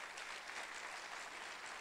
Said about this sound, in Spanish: Si eso fue lo que le criticaron, dale un aplauso al Señor y se lo va a dar.